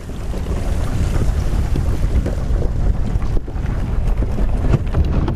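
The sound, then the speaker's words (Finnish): A small motorboat runs steadily across the sea in the Ilulissat Icefjord, Greenland, its engine roar mixed with wind buffeting and irregular knocks and scrapes as the hull rides over ice chunks broken off icebergs, loud throughout. “Tältä kuulostaa, kun pienellä moottoriveneellä ajetaan jäävuoresta irronneiden lohkareiden päältä merellä.”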